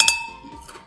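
A single bright clink of glasses touching in a toast, followed by a clear, high ringing tone that lingers and slowly fades.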